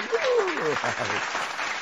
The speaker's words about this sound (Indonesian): Terus kemudian dia mendapatkan lebih dari 30 gelar akademis. Luar biasa, tepuk tangan dong.